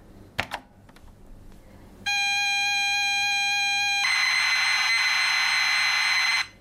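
The mini speaker of a Romanian-built Chip 03 retro computer screeches while a game loads after typing Load in Basic: a couple of key clicks as Enter is pressed, then a steady harsh electronic tone that turns into a louder, hissing data screech before cutting off abruptly.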